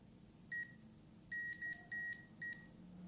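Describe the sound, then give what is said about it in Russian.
An obstacle detector beeps with bright, high electronic tones that repeat faster the nearer an obstacle is: one short beep, a pause, then a quicker run of about six beeps that speeds up. No one speaks. “И вы можете заметить, чем интенсивнее повторяется звук, тем ближе препятствие.”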